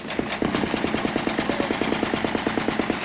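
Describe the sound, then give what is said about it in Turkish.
Two attack helicopters fire on terrorists' escape routes with sustained rapid automatic gunfire, a steady stream of sharp bursts at about eight rounds per second over a constant rushing noise, with no talking. “İki atak helikopteri teröristlerin kaçış yollarını ateş altına aldı.”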